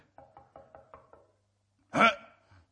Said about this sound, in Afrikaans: Nou klop ek aan die deur.